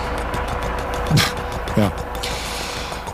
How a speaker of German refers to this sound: Das war unser Hubschrauber, lange nicht gehört. Ja, aber ist ja gerade wieder Hochsaison, oder?